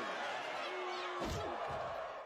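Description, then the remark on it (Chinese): In a film boxing match, a single heavy thud as the boxer Maggie falls and her neck slams against the edge of the rest stool placed in the corner of the ring, a sharp low impact partway through, with a loud crowd roaring steadily throughout. “Maggie 倒地的瞬间，脖子正好撞向了椅子的边缘。”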